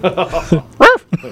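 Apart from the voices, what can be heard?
dog barking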